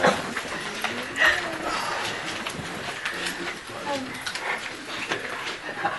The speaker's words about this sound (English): I just, I just, I, just, I still hear people flipping paper.